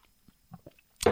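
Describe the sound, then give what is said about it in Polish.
A few soft mouth sounds of someone sipping coffee, with quiet gulps, followed by a louder breathy burst as the sip ends. “Zanim ją zaczniemy, ja sobie tylko łyknę najpierw łyka kawy.”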